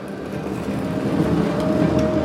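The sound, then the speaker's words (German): A tram rumbles as it pulls away, a steady low mechanical drone building slightly in loudness while a thin motor whine rises toward the end, with no voices. “Dann ist die Straßenbahn losgefahren und der Kiosk gleich mit.”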